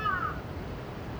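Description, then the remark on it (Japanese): A single crow call rings out at the start, a short harsh caw, then fades into a steady low rumble of outdoor background noise with cars passing, on an evening in Sumida ward. “夕方の墨田区カラスの鳴き声と車の行き交う音”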